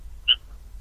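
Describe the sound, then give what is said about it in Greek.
One short, high-pitched insect chirp, like a cricket, sounds once against a quiet background with a low steady hum, then nothing follows. “Τι γρήλο έχει εκεί, τι τζιτζίκια με.”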